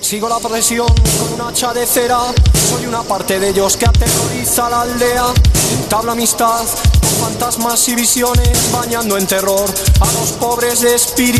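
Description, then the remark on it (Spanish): An upbeat 1980s pop song by a band from Vigo, Spain, plays loudly, with a male lead voice singing over punchy, regularly spaced drum hits and a full, steady band backing throughout. “Y esta canción es muy divertida y suena así.”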